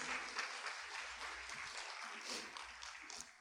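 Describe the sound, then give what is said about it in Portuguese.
A church audience bursts into sustained applause for the Lord, a dense, steady wash of many hands clapping at once with no voices rising above it. “Aplauda o Senhor se você crê nisso.”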